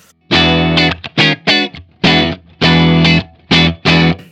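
Electric guitar comps a loud, gritty chord rhythm alone, about eight punchy stabs of varying length separated by brief silences, played without the effect pedal engaged.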